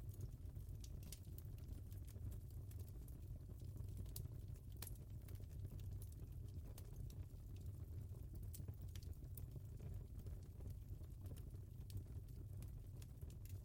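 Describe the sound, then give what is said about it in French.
A fire crackles steadily in a hearth, scattered sharp pops and snaps over a low, warm rumble, fairly quiet and continuous with no voices. “Hypnose pour s'endormir au coin du feu”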